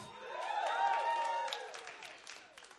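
An audience bursts into loud cheering and whooping for the speaker's wife, high voices overlapping, then the cheers fade into scattered clapping that tapers off over a few seconds.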